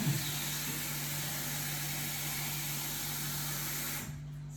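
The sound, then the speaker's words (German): A coffee machine, just switched on to make coffee, runs with a steady, loud mechanical whir and a low electrical hum, broad hiss over everything, easing down in the last half second. No one speaks. “Ich schalte die Maschine ein. Sie läuft schon mal.”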